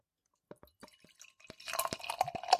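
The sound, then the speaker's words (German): Brooklyn Defender IPA from the Brooklyn Brewery is poured into a glass: a few soft clicks and drips, then a steady, growing splash and fizzy hiss of liquid that gets louder toward the end. “Ähm, und ins Glas heute mal damit.”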